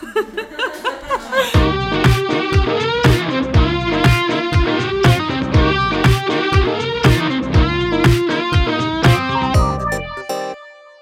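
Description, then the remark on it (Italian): A short upbeat theme jingle: a soft intro, then a loud, steady driving beat under bright, buzzy sustained chords for about nine seconds, ending abruptly. No one talks over it. “Vuoi lanciare la sigla? Sigla!”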